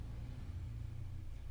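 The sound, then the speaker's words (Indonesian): A motorcycle engine rumbles steadily at a low pitch, a continuous droning hum that holds even throughout, with no voices over it. “itu suara motor tadi kedengeran gak?”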